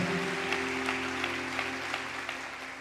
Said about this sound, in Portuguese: Vamos dar uma salva de palmas a Jesus por cada um destes obreiros. E no dia de ontem serviram o dia inteiro aqui na igreja.